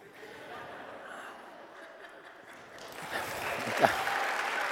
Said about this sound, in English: You're clapping because I'm sitting in a chair.